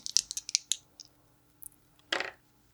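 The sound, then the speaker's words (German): Dice rolled in a game clatter and tumble with a rapid series of sharp clicks, then a pause and one brief louder rattle as they settle; no voices are heard. “ich äh, würfel auf dem Meer weiter.”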